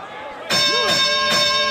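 An arena bell, the 30-point bell sponsored by Larry H. Miller Lexus of Murray and Lexus of Lindon, rings at an NBA preseason game when a player reaches 30 points. It starts suddenly, clanging about three times in quick succession with sustained, bright metallic overtones, loud over a murmuring crowd and a brief vocal shout.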